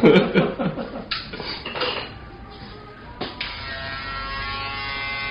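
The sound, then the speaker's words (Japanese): Clattering and scraping give way to the steady, humming buzz of an American-made electric shaver running continuously during a haircut, with no voices. “今シェーバーを入れてますこれがシェーバーですよ音が違う 削られてるアメリカ製の、が違う、なんか音違いますねこの前使ってたのが、はい、これ今使ってるのはアメリカ製の”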